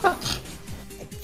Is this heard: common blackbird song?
no